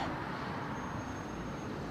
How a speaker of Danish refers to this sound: Der kører den første bil med trailer.